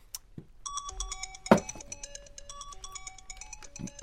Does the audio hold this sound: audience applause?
no